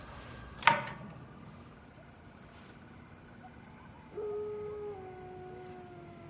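A pack of wolves in a ravine howl in long, sustained overlapping tones that slowly fall in pitch, rising out of a quiet, hissy background after a brief sharp knock near the start.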